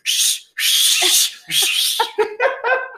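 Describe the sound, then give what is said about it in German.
A voice imitates a loud two-handed whistle with three harsh, breathy blasts, followed by a few short voiced bursts that sound like laughter. “Sieht aus wie so ein fetter Bolo oder so und kommt dann und pfeift dann so, macht mit seinen beiden Händen.”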